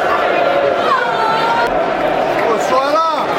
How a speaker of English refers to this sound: There's a good tackle. You can hear the, the applause for that tackle in their own, their own penalty area, listeners.